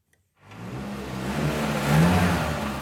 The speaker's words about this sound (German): Die Motoren brummen in den Schulungsräumen der Berner Mobile City. Hier haben sonst Automechaniker und Mechatronikerinnen während der Lehre ihre Kurse.